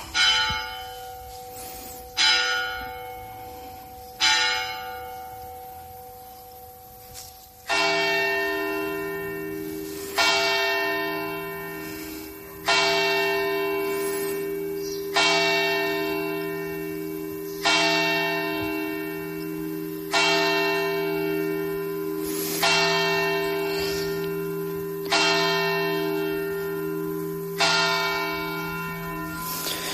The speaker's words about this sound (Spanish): 9 de la mañana con unos segundos de retraso en eh, las campanas de la iglesia de Valderrobres. ¿A quién está dedicada la iglesia? Santa María la Mayor.